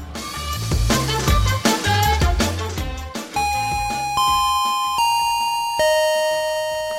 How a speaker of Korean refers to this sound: 아 갑자기 이러네 또 아, 깜짝 놀랐네 자 자 예 딩동댕동 예 벨소리가 나죠